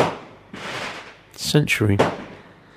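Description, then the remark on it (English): Two muffled, rumbling bursts of fireworks bang from somewhere outside, each trailing off, before a man says a single word. “Either I'm under some sort of artillery fire or there are fireworks going off here, ladies and gentlemen.”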